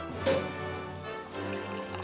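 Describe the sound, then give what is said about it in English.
A short, sharp cork pop, followed right away by a steady stream of liquid being poured into a glass, a produced sound effect, clear with no talking, lasting about two seconds. “I just know that it's following that little cork popping noise that we have with a pouring sound.”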